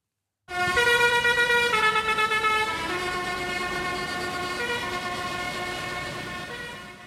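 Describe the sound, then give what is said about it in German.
Dozens of tractors in a farmers' protest drive up to the Buwe Nord motorway entrance in France shortly before noon on a Tuesday, loud, overlapping horns blaring in long sustained blasts, the pitches shifting as they hold, with no talking. “Dienstag kurz vor Mittag bei der Autobahneinfahrt Buwe Nord fahren Dutzende Traktoren vor.”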